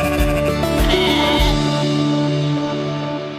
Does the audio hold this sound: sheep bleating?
yes